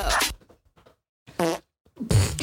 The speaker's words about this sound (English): Let's get the sun and, cue, and cue the fart noises.